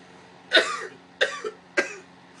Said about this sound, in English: My, my fault. I, I, I was trying not to cough on you